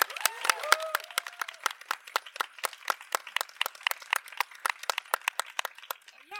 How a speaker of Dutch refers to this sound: En een groot applaus voor onze regisseur en presentatrice